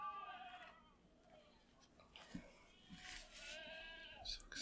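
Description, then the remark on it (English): Goats standing in dirt in hot weather bleat repeatedly outdoors, their wavering, harmonic cries rising and falling in overlapping bursts, with a faint rustling background and no clear talking. “is that a goat or a child screaming? Both.”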